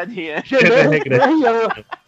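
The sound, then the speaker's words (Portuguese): Loud chicken clucking from a meme video of a chicken wearing a little French beret, in two quick bursts, the wavering, squawky calls rising and falling in pitch before cutting off into a brief pause. “É o que tem a galinha com uma boininha francesa”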